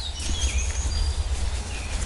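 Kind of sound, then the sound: bird, common chaffinch singing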